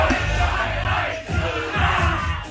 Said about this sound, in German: Das war äh, Holstein Kiel aus der Kabine, nachdem sie die Bayern im Pokal rausgeschmissen haben.